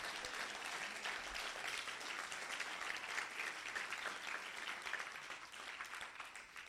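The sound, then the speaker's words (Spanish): Sustained applause from a crowd at a Spanish-language sermon, given for Jesus: a dense, steady wash of many hands clapping at full volume for several seconds, easing slightly toward the end with no speech over it. “Alguien den un aplauso fuerte a Jesús.”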